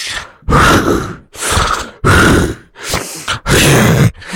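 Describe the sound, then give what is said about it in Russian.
A voice imitates desperate gasping for air, as when lying face down with a runny nose: about five loud, harsh, strained breaths in quick succession, each a rough burst of air, with no talking. “И в какой-то момент случилась другая паранойя, что мне не хватает воздуха, я задыхаюсь.”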